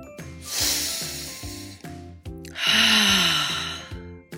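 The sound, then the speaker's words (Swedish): Two long, deep breaths drawn in through the nose, airy, like someone taking big appreciative sniffs of a Christmas tree, with a faint steady tonal hum running underneath. “Granen tänker jag att det är ett större sniffljud än till glöggen, typ”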